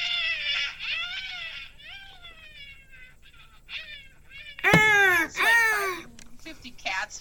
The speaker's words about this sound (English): Was that you or the cat?